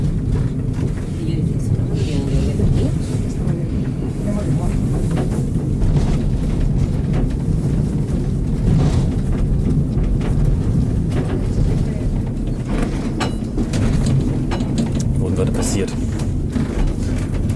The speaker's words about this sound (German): Aber es rumpelt ein wenig. Klappert auch nur wie Holzgefährte klappern können. Ja, das ist schön. Das ist ein sehr, sehr schönes Geräusch.